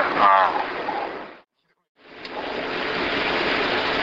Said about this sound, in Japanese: 相変わらず雨降ってますいや大雨ですよ